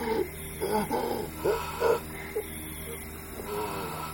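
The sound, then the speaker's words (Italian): Heavy, wheezing breaths, a quick run of strained, raspy inhales and exhales that rise in bursts and then trail off into quieter breathing. “Respira a fondo.”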